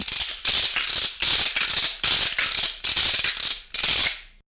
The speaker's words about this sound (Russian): И я вижу еще один инструмент из шумовых, которые не имеют определенной звуковысотности, это трещотки. Они тоже часто используются для каких-то звукоизобразительных моментов. Покажите, как звучат.